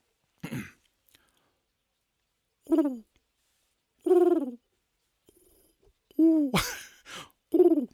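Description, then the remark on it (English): A person's voice imitates a pigeon cooing, producing a series of short, throaty, falling coos with pauses between them, fairly loud, with no other speech. “By the way, I can actually do quite a good pigeon.”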